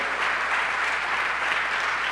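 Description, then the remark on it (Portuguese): An audience claps steadily for the name of Jesus, a dense, continuous wash of many hands at an even, fairly loud level with no voices standing out. “Aplauda o nome de Jesus.”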